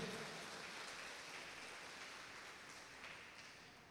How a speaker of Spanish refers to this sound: Denle el aplauso al Señor esta tarde.